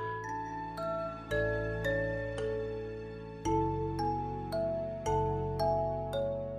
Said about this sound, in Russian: Кстати, обратите внимание, что эта композиция звучит как-то более богато и четко. Здесь больше инструментов, его хронометраж больше.